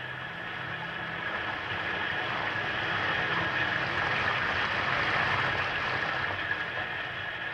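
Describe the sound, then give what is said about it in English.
Steady rain pours down in an even, unbroken wash of hiss that holds at the same loudness throughout, with a faint low rumble underneath and no voices. “You may come in out of the rain if you wish.”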